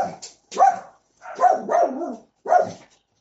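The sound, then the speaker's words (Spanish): A small dog passing by barks in short, sharp bursts, about four yaps spaced irregularly over a few seconds, clear with quiet gaps between them. “hay un perrito pasando por allí.”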